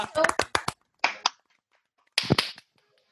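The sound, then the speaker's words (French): A man claps his hands in three short bursts of quick, sharp, loud claps, separated by brief pauses. “Monsieur applaudit.”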